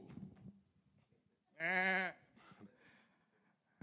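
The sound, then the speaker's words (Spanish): A single loud goat bleat, a wavering nasal cry lasting about half a second, stands out clearly, with softer scuffling and quieter noises before and after it. “Entonces está una cabra, imagínense, está una cabra en la naturaleza y viene un león y el león lo asusta y la cabra lo único que puede hacer es lo único que no debería hacer y es que se paraliza.”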